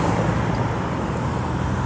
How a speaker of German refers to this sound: Direkt von der BMW-Welt ist übrigens auch der ganze unschöne Geräuschmatsch von Autos zu erfahren. Ja. Den Kontrast bekommt ihr jetzt auch leider voll mit. Ist gleich vorbei.